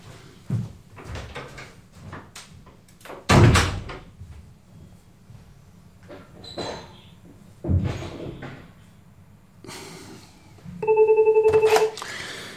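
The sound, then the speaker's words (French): A desk telephone gives a short, loud electronic ring near the end as a call from the president is put through to it, after a series of scattered thumps and knocks like doors or drawers being handled, with no talking. “Le président Je vous le passe sur le téléphone de Camille euh, Oui, merci.”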